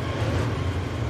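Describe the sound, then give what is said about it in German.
A steady, heavy low rumble with broad rushing noise of a passing S-Bahn train completely covered in graffiti, loud and continuous throughout with no voices. “Und das war der Zug gerade.”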